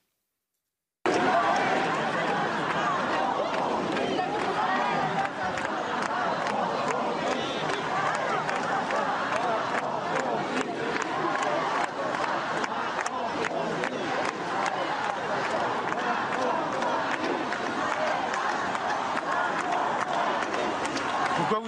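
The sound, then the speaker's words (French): A large rally crowd chants pro-Palestinian and anti-Israel slogans together, a loud, dense wall of voices with rhythmic pulses and shouts that carries on steadily for about twenty seconds. “Oui, plusieurs élus insoumis et écologistes ont pris part à ce rassemblement où plusieurs euh, chants pro-palestiniens et anti-Israël ont été scandés.”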